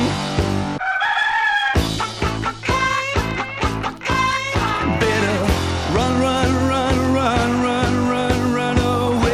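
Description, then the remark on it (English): Rooster crowing and chicken clucking mixed into a loud, busy music track with a steady drumbeat, the bird calls sounding bright over the instruments. “A crazy chicken chasing me all over town.”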